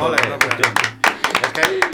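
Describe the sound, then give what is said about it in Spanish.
Applause given for those who make song versions for people to dance to: a quick, uneven run of sharp hand claps lasting about two seconds, fairly loud, with a low voice murmuring faintly underneath. “Venga, vamos a dar un aplauso.”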